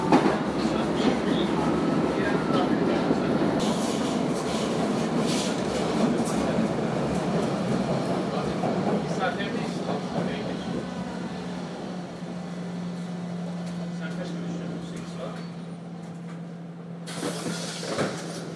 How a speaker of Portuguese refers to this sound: Porque o trem para e fica tudo como tá. E você tem que meter a mão no botão lá e abrir a porta.